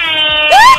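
A loud air horn sound effect played from a phone app called Air Horn blares a steady, buzzy tone for under a second, ending in a brief upward-bending whine. No one speaks.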